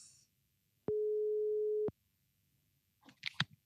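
A single steady telephone ringback tone, a clean mid-pitched hum lasting about a second, then quiet followed by brief clattering handling noises.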